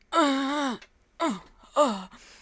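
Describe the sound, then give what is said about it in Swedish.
A voice imitates an old man's groan of sitting down: one long, drawn-out falling moan, then two shorter grunting groans, loud, with no words. “Alltså jag gubbstönar sjukt mycket. Ja, nu... Alltså när jag sätter mig ner och grejer, alltså jag låter så här, jag bara...”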